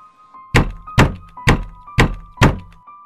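Five loud, evenly spaced knocks on a window, about half a second apart, each a sharp rap with a dull thud, over a faint steady hum and no voices.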